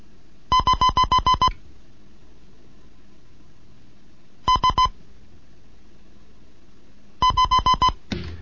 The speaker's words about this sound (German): Hiermit möchte ich dann die zweite Lektion des Morseunterrichts für Anfänger beenden.